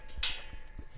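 A gate swings shut behind a person walking in among three burros (donkeys), with a sharp, bright clank near the start, followed by a few soft, low thuds at an uneven pace. No one speaks.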